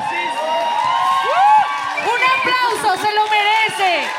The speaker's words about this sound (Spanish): Pero, espera, súper aplauso.